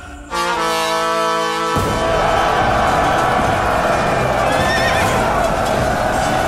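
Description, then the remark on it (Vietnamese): A horse gives a loud, drawn-out neigh with strong harmonic tones as it is spurred back to the army lines during a battle at a city wall, then galloping hooves and a rumbling crowd-like roar take over for several seconds. “Lý Tương Quân nhấc đại đao lên Xoay dài vòng gạt phan tên đi Thúc ngựa chạy về trận Ông quát Chuẩn bị công thành”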